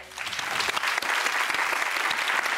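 Steady audience applause, a dense wash of many hands clapping at a fairly loud, even level throughout, with no voices standing out.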